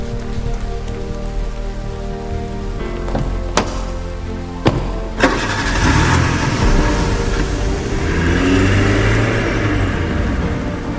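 A car engine idles with a steady hum, a few sharp thuds ring out, then a broad rushing roar swells as the vehicle pulls away, with a rain-like hiss throughout. No one speaks.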